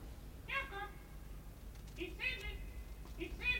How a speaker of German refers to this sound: Was ist das? Was? Was ist los? Das Geräusch. Hörst du's? Ein Papagei. Na und? Ich habe diesen Papageien schon einmal gehört. Vergangene Nacht.